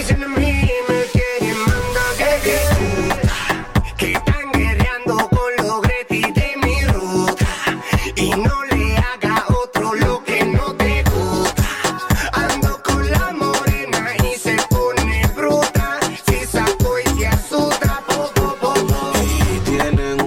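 A loud, dense urban-style song plays continuously for the whole stretch, driven by punchy, steady beats and heavy bass under layered melodic parts, with no talking over it.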